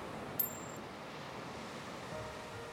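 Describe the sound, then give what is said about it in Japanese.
A single small metallic clink of two people's pierced earrings tapping together during a hug rings briefly and brightly before fading, set against a steady low background hum with no voices. “あの頃はしていなかったピアスが重なり小さく音を立てる”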